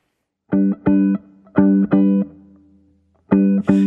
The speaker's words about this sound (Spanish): después de escuchar esta hermosa música, vamos a estar abriendo la Biblia. Escuchemos esta canción titulada